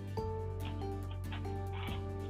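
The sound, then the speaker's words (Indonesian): A frog croaks several times in short, raspy bursts, spaced irregularly, over a steady low electrical hum. The croaks are quiet, with no talking. “Bentar, bentar ada kodok, Cuk anjir cuk ini nggak aku cut nih biar masuk podcast nih kodok oh, ngapain cuk pengen ikutan kali”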